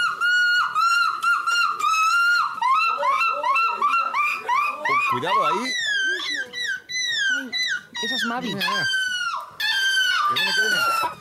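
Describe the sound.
Participants at the annual European Seagull Imitation Championship imitate seagull calls in loud, rapid squawks and rising-falling wails, one after another with barely a pause, and a brief spoken remark comes in partway through.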